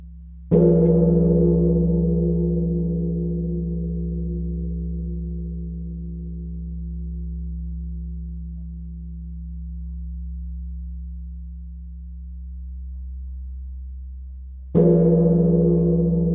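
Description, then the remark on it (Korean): The large Korean bronze Emille Bell, officially named the Sacred Bell of King Seongdeok and made about 1,200 years ago, is struck, its deep resonant hum lingering and slowly fading for over ten seconds before a second strike rings out. No voices are heard. “종소리입니다. 에밀레종 정식 명칭은 선덕대왕 신종이고요.”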